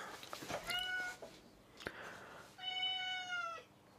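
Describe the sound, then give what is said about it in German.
A Sphynx cat meows twice: a shorter, wavering meow first, then after a pause a longer, steady, clear meow, with no talking over them. “Was bringt eine Sphinx-Katze mit”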